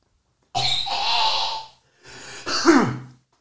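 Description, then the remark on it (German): Two harsh, raspy bursts of coughing and throat clearing, with a brief pause between them, like someone hacking after something went down the wrong way. No talking. “Da ging der Hund in die falsche Ecke.”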